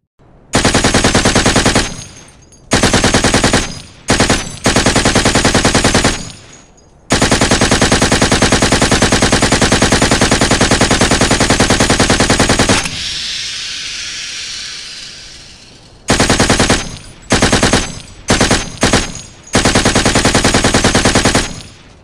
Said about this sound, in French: Marcel Lefrançais tire une rafale de mitrailleuse MG5 au travers de la porte d'entrée et dans les fenêtres qui donnent sur la pièce principale.